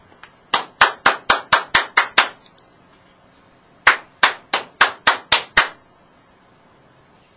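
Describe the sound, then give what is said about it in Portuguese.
Two rapid bursts of sharp, loud knocking on the door of an old mansion by carriers come to take away the sick, each about eight evenly spaced raps, separated by a short pause, with no voices. “Todos os dias Antero atendia aos carregadores de enfermos que batiam à porta da velha mansão, atraídos pelo sinal vermelho.”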